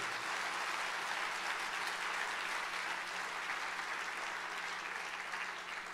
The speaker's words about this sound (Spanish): Dele un aplauso al Señor que lo merece.